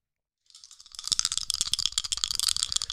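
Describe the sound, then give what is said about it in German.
Dice rattle steadily in a cupped hand while being filmed, before a D20 dexterity check roll in a tabletop role-playing game, a dense, bright clatter of rapid clicks that starts softly and quickly grows louder, continuing without pause and with no voices. “Ja, ich schüttel die Würfel in der Hand und ich filme währenddessen.”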